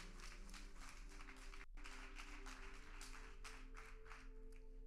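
A large church audience, standing, applauds God loudly, dense overlapping claps at full volume, with a brief dip partway through before the clapping continues over a low sustained hum.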